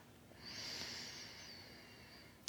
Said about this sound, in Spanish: Vamos a tomar una respiración profunda para que se asimile todo esto. Inhala.